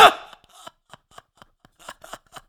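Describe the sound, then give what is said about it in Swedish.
A strong clack opens, then a series of short, sharp mechanical clicks follows at an irregular pace as a camera tripod is adjusted, with no talking. “du var upptagen med att klicka med stativet istället.”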